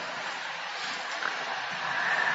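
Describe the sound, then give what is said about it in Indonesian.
Rain that has just begun falls steadily in a continuous, even hiss with no breaks, moderately loud, with no voices over it. “Ah, di tempat saya sekarang baru hujan.”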